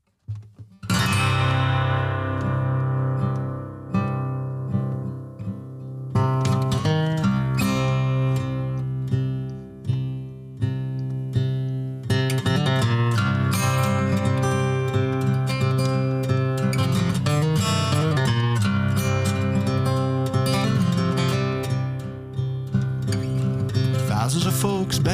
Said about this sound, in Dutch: Je hebt gelukkig vandaag ook een gitaar meegenomen.